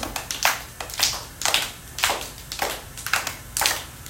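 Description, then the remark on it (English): A steady run of about eight sharp hand claps, evenly spaced roughly half a second apart, moderately loud, with no voices; the claps are made with the arms reached up overhead while bending into one knee in a wide stance. “So we'll put our feet out wide, our arms out wide, bend into one knee, and then reach your arms up and clap.”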